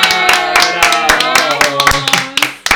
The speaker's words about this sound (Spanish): somos tres pelotudos aplaudiendo.